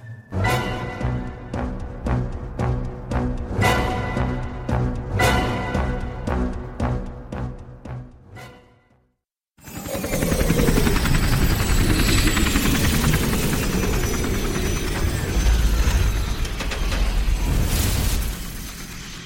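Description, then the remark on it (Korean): A brief tonal musical passage fades out, then after a moment of silence a loud helicopter roar takes over, a dense, steady rotor and engine rumble that continues to the end, a helicopter flying from Seoul to Pyongyang. “나는 서울에서 1박을 한 후 통일한국 국방연구소에서 마련한 헬기를 타고 평양으로 날아갔다.”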